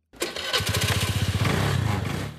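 A delivery rider in Istanbul starts a small purple motor scooter owned by the delivery firm Getir; the engine settles into a steady, throbbing putter with rapid rhythmic pulses, loud and alone without any talking.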